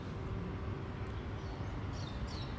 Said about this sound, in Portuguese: Olha só, ouve esses pássaros.